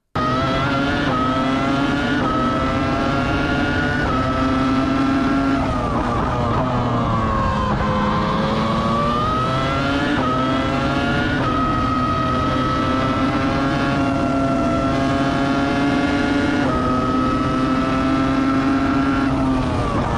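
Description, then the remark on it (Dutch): A loud, high-pitched race car engine screams continuously, its whining pitch rising and dipping repeatedly as it revs and shifts through gears, alone without any talking. “ik denk niet dat alleen de fans het geluid missen, maar ook de mensen in de paddock.”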